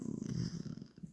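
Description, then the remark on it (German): A pet cat snoring with a soft, low, rumbling rattle that pulses steadily throughout, quiet, with no voices. “hört man das, wie laut die schnarcht, Alter. Das hört man safe voll im Hintergrund.”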